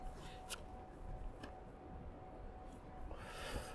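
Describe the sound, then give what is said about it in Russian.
Two sharp clicks of a lighter being flicked about a second apart to relight a hand-rolled cigarette that keeps going out, followed by a soft rushing hiss near the end, all fairly quiet with no talking. “Это слышно, да, наверное, то, что я зажигалкой чиркаю?”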